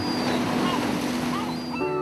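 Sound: sea waves and surf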